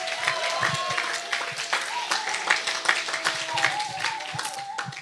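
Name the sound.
audience applause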